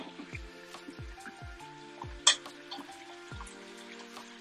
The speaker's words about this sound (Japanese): じゅうじゅう焼きながらしりとりします。ちょっと肉少ないな、これ。